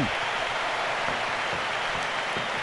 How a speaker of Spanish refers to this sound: Hay cambio de España, uno más, se va Jordi Alba con las palmas de toda la afición